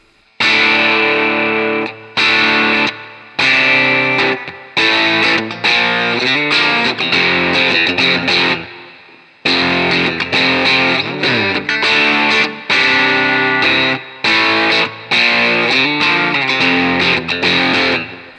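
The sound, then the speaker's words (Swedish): A heavily distorted electric guitar through a high-gain amp switched up to its fat mode, turned fully up, plays loud, chunky chords in short bursts with brief gaps, thick and buzzing, with no talking over it. “Eh, och sen så drar du på, stänger av den här, eh, ja precis, switchen upp då så att det är fetläget där.”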